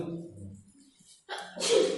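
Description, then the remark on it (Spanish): A single sneeze caused by allergy: a soft, breathy intake followed by a loud, sharp burst of noise. It comes after a brief stretch of low murmuring. “Otra vez, la alergia.”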